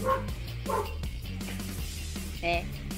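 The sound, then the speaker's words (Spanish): A dog next door barks in three short, sharp bursts spaced across the few seconds, clearly audible over a low steady background hum. “Oye, ¿qué habla ahora el perro de por tu lado?”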